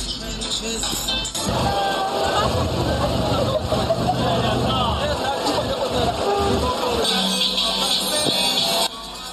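A dense carnival street crowd roars with overlapping chatter and shouts, steady and loud throughout, while low rumbling vehicle noise runs underneath and a bright hiss sits on top.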